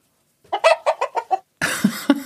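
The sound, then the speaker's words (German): A toy chicken lying on a piano clucks in a quick run of six or seven bright, squeaky pulses, then lets out a louder, harsher squawking burst with a couple of accented peaks, loud. “Das, also das Huhn liegt schon mal hier parat auf dem Klimperkasten.”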